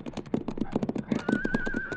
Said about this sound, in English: Hey, it's a horse, all right. Looks like the roan the kid was riding.